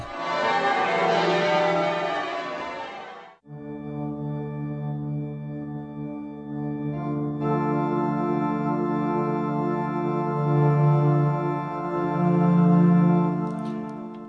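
A brief noisy burst gives way to the deep, resonant bells of Lincoln Cathedral ringing out together, their long overlapping hum sustaining steadily and swelling in a loud, full peal with no voices.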